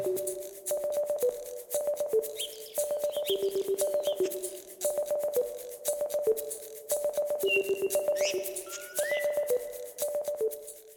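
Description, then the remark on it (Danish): Two songbirds sing a continuous medley of rapid clicks, rattles and sliding whistles, one especially good at imitating other birds' calls, including barn swallow, curlew, blackbird, jackdaw and grey partridge. The phrases repeat in quick bursts throughout, with no talking. “I denne indspilning høres to forskellige individer. Især den ene er god til at efterligne.”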